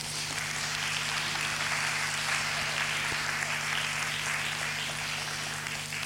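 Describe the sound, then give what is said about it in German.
An audience claps steadily for several seconds, a warm applause welcoming a person coming to the front, a dense, even wash at constant strength with a faint low hum beneath and no voices. “den könnt ihr mal kurz hier mit einem warmen Applaus nach vorne holen.”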